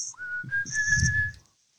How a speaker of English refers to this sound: He's li- whistling this, the song.